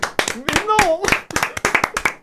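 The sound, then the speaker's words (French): A short burst of applause in thanks to a listener of the programme: a small group clapping in quick, uneven bursts, loud and crisp, with a voice calling out over the claps partway through. “Applaudissements pour Philou, s'il vous plaît.”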